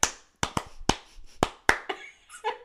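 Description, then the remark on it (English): About seven sharp hand claps in an uneven, beat-like rhythm, fairly loud and crisp, meant to mimic buttocks clapping, followed by a brief higher-pitched tonal sound at the end. “You hear the claps. now um, that's just the um, ass cheeks.”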